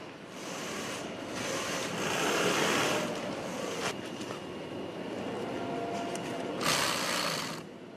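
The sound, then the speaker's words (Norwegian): Sewing machines whir busily across a factory floor where inflatable roosters are made, a dense continuous mechanical hum with louder bursts of rapid stitching swelling in and out. No one speaks. “Symaskinene går for fullt i denne fabrikken.”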